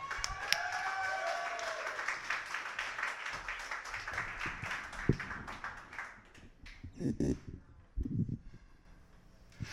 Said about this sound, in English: All right, keep that applause going for the last poet up for the night.